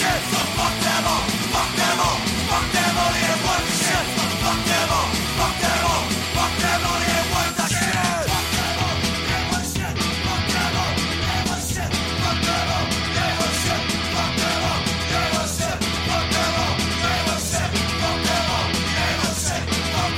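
A heavy rock song from 1996 plays loudly and steadily throughout, with a driving, prominent bass line under dense distorted guitars, pounding drums and what sounds like shouted vocals.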